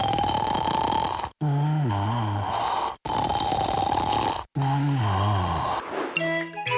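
person snoring

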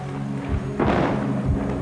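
thunder

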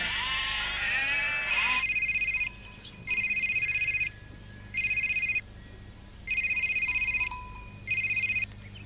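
sheep bleating

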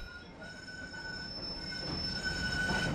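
tram passing on rails

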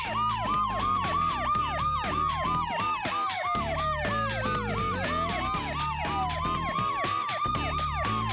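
police car sirens

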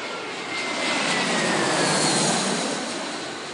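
airplane engine

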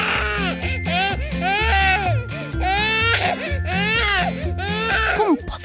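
baby crying loudly

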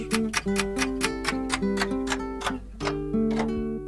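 clock ticking

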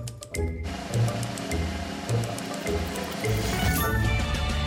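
cricket chirping

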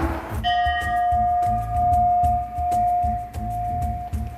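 old church bell ringing

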